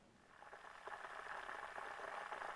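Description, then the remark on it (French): A kettle in a kitchen at night heats water for instant coffee toward a boil, a steady rushing hiss with soft bubbling that grows slightly louder and fuller over a couple of seconds, with no voices. “Il avait mis la bouilloire à chauffer et sorti le café instantané du placard.”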